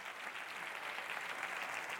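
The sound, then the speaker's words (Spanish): An audience applauds the Lord at a church service, many hands clapping in a dense, continuous patter that holds at an even, fairly loud level without pause or voices over it. “Si tú lo crees, dale fuerte el aplauso al Señor.”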